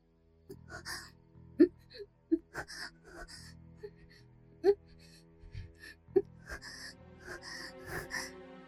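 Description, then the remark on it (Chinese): A woman makes soft, breathy moans over about nine seconds, broken by several short, sharp gasps and faint whimpers, with no words spoken. “终于，李雪萍忍不住发出了轻轻的呻吟。”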